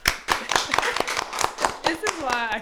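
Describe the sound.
Applause of quick, sharp hand claps in an uneven rhythm, fairly loud throughout, with voices and a rising cheer or laugh joining toward the end.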